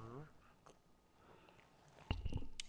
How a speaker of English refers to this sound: Hold on, let me drink some water. Sipping on some water.